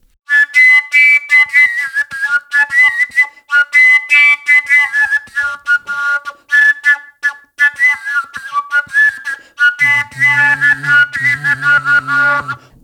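A long Hutsul flute (sopilka) without finger holes, played with a finger at the pipe's outlet, plays a breathy, whistling melody that hops between high overtones, then drops to fuller, lower notes for the final few seconds, with no voices.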